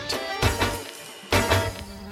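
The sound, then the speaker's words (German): A dense, steady buzzing of many bees, a continuous droning hum that swells louder in a couple of bursts, with no voices. “Ja, eindrücklich ist, wenn man jetzt die braucht, die wir vor uns hier haben, anschauen, wie, wie das summt.”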